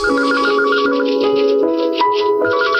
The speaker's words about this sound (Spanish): Una mañana sonó el teléfono en la oficina de aquel joven de 35 años